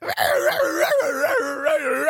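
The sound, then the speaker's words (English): A small female dog lets out a loud, sustained howling scream, its high pitch wavering and sliding up and down in continuous wailing arcs, unbroken. “She has this crazy scream that she can let out.”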